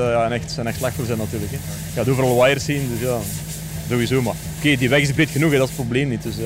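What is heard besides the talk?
rain falling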